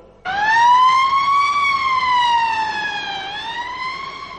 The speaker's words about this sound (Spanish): ¡Y llegan los bomberos! ¡Y la ambulancia! ¡Y la policía!